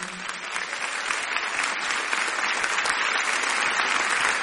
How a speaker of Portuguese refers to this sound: Dá uma salva de palmas para Jesus aí nessa noite.